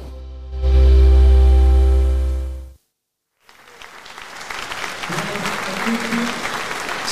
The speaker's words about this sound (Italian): Siamo in diretta dal teatro Lauro Rossi di Macerata. L'applauso che avete sentito e che sentite di nuovo, vi prego, è quello del pubblico. Del pubblico delle audizioni di Musicultura 2023.